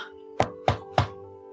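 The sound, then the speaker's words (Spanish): Three firm knocks on a door, evenly spaced, sounding over a low steady hum in the background. “Pero rápidamente desaparecen cuando escuchamos el tocar la puerta.”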